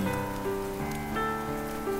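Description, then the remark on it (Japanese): Steady, gentle, warm rainy-season (tsuyu) rain falls continuously at an even, hushed level, with soft sustained musical tones drifting underneath and no voices. “梅雨の雨が好きだ暖かく静かに降り続く雨重力に身を任せた直線が私の体を通り過ぎている”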